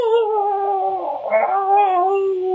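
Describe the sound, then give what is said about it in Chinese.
A voice imitates a Fox World Cup commentator's Latin American-style goal shout for a US team goal, holding one loud, drawn-out, high-pitched yell steadily for the whole stretch, with only a slight wobble in pitch midway. “他们这足球现在解说越来越像是拉美那套风格，叫的特别特别长哦。”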